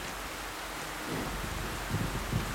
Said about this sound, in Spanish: Y ahora una simple lluvia los detiene.